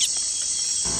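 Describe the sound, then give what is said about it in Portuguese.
A small snake, picked up in the hand to be handled at night, gives a steady, high-pitched cricket-like trill that buzzes continuously and fairly loud throughout, with no pauses and no voices, and a faint low rumble creeping in near the end. “E nesse, nesse vídeo em questão, a hora que eu peguei o animal na mão para manusear, essa cobrinha acabou emitindo um som, que foi a, a grande surpresa da noite.”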